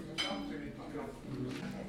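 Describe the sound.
Ambience of a restaurant by the water: a low murmur of indistinct voices, with a bright clink of dishes near the start and another toward the end, like cutlery tapping plates.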